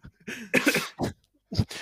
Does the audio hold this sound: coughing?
yes